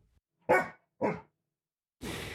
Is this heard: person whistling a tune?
no